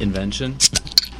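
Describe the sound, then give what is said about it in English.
A metal pop top ring from PopTopRings.com, a ring that opens beer bottles, clinks sharply two or three times, bright, right after a brief bit of talk and a laugh. “it's called a pop top ring.”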